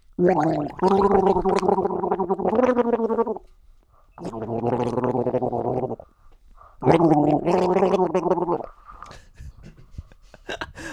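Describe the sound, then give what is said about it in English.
Someone gargles water while trying to sing a melody, the bubbling, warbling tones coming in three long loud bursts separated by short pauses, with faint breathy noise at the end. “I can't even hear it, and I'm the one fucking singing it.”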